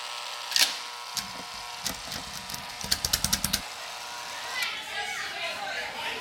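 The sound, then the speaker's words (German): A short community survey jingle built from children playing: scattered clatters and a quick run of sharp, evenly spaced knocks, then a softer swell of kids' voices and bustle fading out at the end. “Let's play the community umfrage jingle.”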